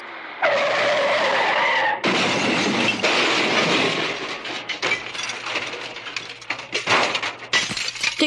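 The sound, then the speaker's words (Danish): A car's tires screech loudly in a long skid, then a heavy crash hits as Scotty crashes the car on September 2, followed by crunching metal and scattered breaking glass that clatters and settles. No voices. “Scotty kører galt i deres bil, som ryger på værksted.”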